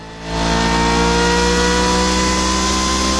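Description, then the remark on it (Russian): An Izh Planeta motorcycle engine revs up loudly and holds a steady, harmonic roar, with no voices over it. “А это Иж-планета.”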